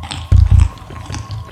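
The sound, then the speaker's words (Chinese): A voice imitates chewing with the mouth, pretending to eat: two loud, low munching bursts in quick succession, followed by a few softer smacking sounds, with no words spoken. “她稳住发抖的身体。装出咀嚼的声音”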